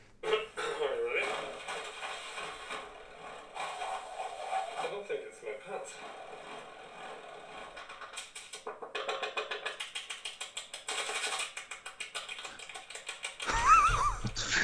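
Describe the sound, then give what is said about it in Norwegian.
A busy jumble of handmade sound effects made by many people doing different things, heard in the background of a game teaser video: ratcheting clicks, clattering mechanisms and rapid rhythmic tapping overlap, with a sharper burst of rattling near the end. “Det var masse folk som står og gjør forskjellige ting for å lage lydeffekter.”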